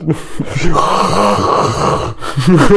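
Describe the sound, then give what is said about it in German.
A voice imitates loud snoring, drawn-out rasping, groaning breaths that rise and fall for a few seconds, loud, with no real words spoken. “schnarcht irgendwer von euch?”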